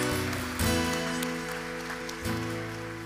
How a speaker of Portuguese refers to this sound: Se você querer dar uma salva de palmas, um grito de júbilo a Ele. Glória a Deus.